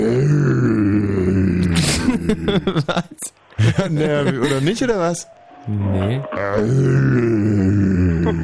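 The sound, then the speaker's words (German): A voice imitates a lion's roar with a low, growling, drawn-out groan, followed by people talking and questioning one another, with another short grunting sound mixed in. “So ein, ja, Löwe soll es eigentlich werden.”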